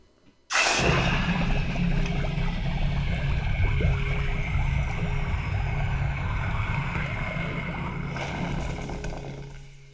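A 900-degree jewelry casting flask is plunged into water at a jewelry shop in West Allis, bursting into a loud, violent hiss and rumbling boil that roars steadily for several seconds before beginning to fade as the plaster bursts off a cast gold ring. No voices are heard.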